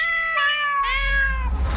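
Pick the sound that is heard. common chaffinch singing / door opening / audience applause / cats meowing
cats meowing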